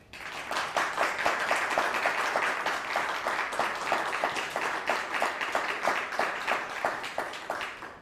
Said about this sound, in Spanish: Buen y fuerte aplauso.